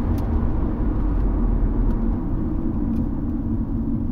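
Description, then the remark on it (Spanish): A car engine rumbles steadily as the car parks between two others in a car park full of seemingly abandoned cars, a deep, continuous low drone that holds at an even loudness throughout without cutting out, with no voices. “aparcó entre dos de ellos y detuvo el motor”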